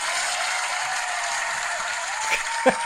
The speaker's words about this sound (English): I'm going to say we're going to have this applause every time.